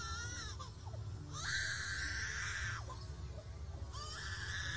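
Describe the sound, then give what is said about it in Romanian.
A bird that can mimic almost any sound imitates an infant's wail in three long, rising-and-falling harmonic cries separated by short pauses, fairly loud over a steady low rumble, with no talking. “Even a baby crying.”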